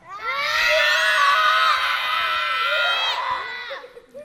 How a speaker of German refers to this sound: Kinder, könnt ihr einmal alle so laut schreien, wie ihr könnt, auf drei, so laut, wie ihr könnt? Eins, zwei, drei.